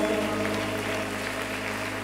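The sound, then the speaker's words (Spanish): Loud, steady applause fills the whole two seconds, a dense crackle of many hands clapping, with a sustained low tonal hum running underneath and no voices. “fuerte aplauso.”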